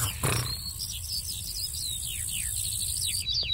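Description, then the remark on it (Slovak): A steady high-pitched insect drone with rapid repeated chirps layered on top, like crickets, over a low rumbling background in an outdoor meadow at night; no one speaks. “To mi už ako cvrček pripomína toto.”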